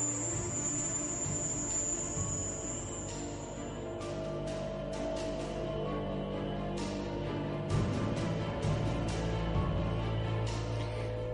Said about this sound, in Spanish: El diplomático sacó su móvil y le mostró una grabación del zumbido que escuchaba en su casa. Era exactamente el mismo sonido.